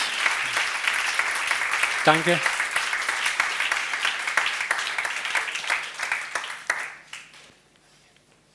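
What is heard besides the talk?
applause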